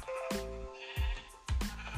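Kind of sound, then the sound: animal, sheep bleating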